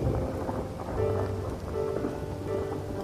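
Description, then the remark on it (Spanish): Steady, dense rainfall pours continuously while a low thunder rumble rolls underneath, swelling slightly now and then; no voices, just the storm filling the space. “Un relámpago fugaz iluminó todo el lugar, dejándole ver la figura frente a él.”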